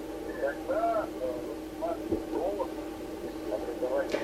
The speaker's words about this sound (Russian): я слышу, что у вас эхо